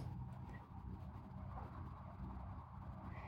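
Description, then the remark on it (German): A mountain railway train rumbles uphill on its way up to the Schienige Platte, a steady low droning hum that stays faint and even throughout, with no voices present. “Ah, das ist die, das ist die Eisenbahn, die hochfährt zur Schienige Platte.”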